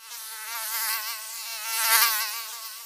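A thin, high-pitched mosquito whine drones steadily, wavering slightly in pitch and swelling louder near the end, with no voices present.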